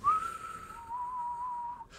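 A wind-like whistle: one steady, fairly high tone that starts slightly higher, glides down a little and holds for about two seconds at moderate loudness, with no talking.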